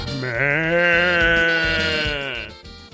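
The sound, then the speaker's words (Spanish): A single drawn-out goat bleat sound effect, loud, with a wavering, nasal quiver that holds for about two seconds before trailing off. No voices or other sounds accompany it. “Se van como las cabritas”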